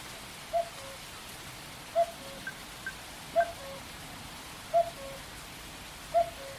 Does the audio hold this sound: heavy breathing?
no